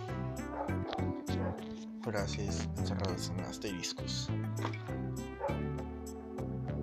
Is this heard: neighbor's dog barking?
yes